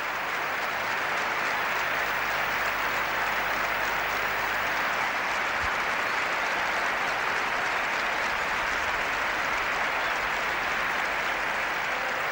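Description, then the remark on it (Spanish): A vast crowd at the Bernabéu stadium in Madrid applauds steadily, a dense, sustained roar of clapping that stays loud and even throughout, with no voices standing out. “Escuchen el Bernabéu.”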